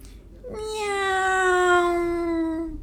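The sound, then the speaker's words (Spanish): A single long, drawn-out meow of a female cat, fairly loud, holding a steady tone for over two seconds before trailing off slightly lower in pitch. No one speaks. “Gatita, tranquilita, tranquilita. Le dice Blancanieve a la vez que le acaricia con su”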